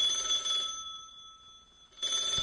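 A bell rings continuously with a bright, metallic, sustained tone, fading a little in the middle before surging back loudly near the end. No one speaks.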